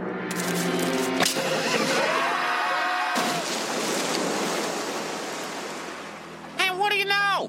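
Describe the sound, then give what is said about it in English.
A steady wash of ocean surf rolls through the whole stretch, loud, with voices briefly at the start and a short vocal burst near the end. “For liability purposes, it is the ocean that will kill you, not us.”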